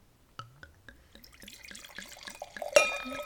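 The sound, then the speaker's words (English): Liquid pours into a glass in a quick series of glugging splashes, the pitch climbing steadily as the glass fills, ending with a brighter splashy burst. No one speaks. “That was a successful pour, no spills.”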